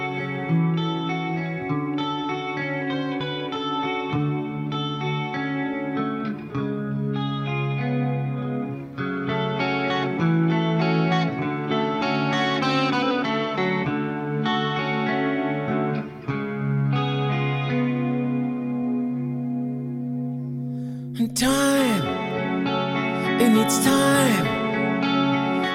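A slow rock ballad plays steadily, with sustained, effects-laden electric guitar and rich harmonies, ending in a few wailing bent guitar notes. No one speaks over it.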